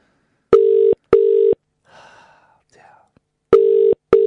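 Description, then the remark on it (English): A loud telephone ringback tone sounds in two double-pulse bursts, the way an outgoing call rings, with faint murmuring voices in the gap between the rings. “That's a very loud ring, isn't it?”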